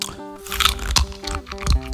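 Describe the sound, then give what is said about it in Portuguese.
A crunchy bite into a hard roasted peanut, with two sharp, close crunches about a second apart over a steady musical background. “Bartolomeu mordeu um amendoim duro e torrado e acabou com o dente quebrado”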